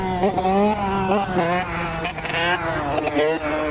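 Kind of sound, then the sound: vehicle, motorcycle engine revving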